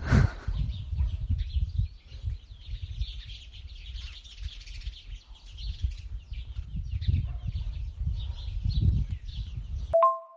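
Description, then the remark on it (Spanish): Birds chirp and cluck over a steady low rumble, with scattered high tweets throughout, ending in a brief sharp tone. “Os pongo otra vez los pajaritos y, a ver si se quieren oír un poquito.”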